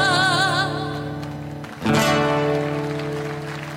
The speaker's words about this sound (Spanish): Un aplauso grande.